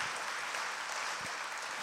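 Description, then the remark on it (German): An audience applauds steadily for the retired sisters (Feierabendschwestern) listening at the microphones, a dense, even wash of many hands clapping at once that holds a constant level throughout, with no voices standing out. “Ich glaube, wir können mal für die Feierabendschwestern klatschen.”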